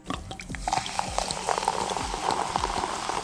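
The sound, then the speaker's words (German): Steady fizzing crackle of sherbet powder in the mouth as carbon dioxide gas forms, with many tiny pops and snaps scattered densely over a constant hiss throughout; no voices. “Es entsteht also ein Gas bei uns im Mund. Und das sorgt für das Knistern und Knallen.”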